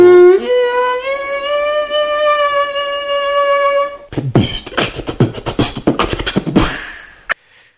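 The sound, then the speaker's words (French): A long, steadily rising hummed note gives way to a burst of rapid, punchy mouth percussion, a voice beatboxing drum hits in imitation of a drum kit or drum machine, loud and rhythmic for a few seconds. “Ça, c'est un bruit de bouche Et puis c'est tout.”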